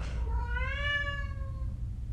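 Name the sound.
cat meowing loudly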